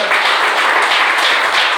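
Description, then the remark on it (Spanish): An audience at a Spanish-language morning church service applauds the Lord together, a steady, dense wash of many hands clapping at full volume with no voices breaking through, sustained evenly for the whole moment. “Den un buen aplauso al Señor, por favor, esta mañana.”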